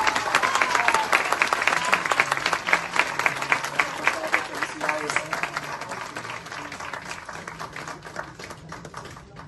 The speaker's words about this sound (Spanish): Así que démosle un fuerte aplauso a la señora Maxine Woodside.